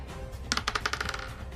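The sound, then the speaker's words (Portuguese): A twenty-sided die, rolled for an observation check, clatters across a hard surface in a quick burst of bright, clicking bounces that speed up and fade as it settles, with no one speaking. “rola o D20 mais um, para ver se você consegue observar tudo e entender como tudo funciona.”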